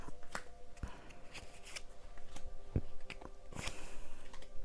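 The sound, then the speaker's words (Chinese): Tarot cards are shuffled and four are drawn, a run of crisp papery riffles and flicks with sharp slaps in between, fairly quiet, with no talking over it. “好，等等吼，好，我要来抽牌哦”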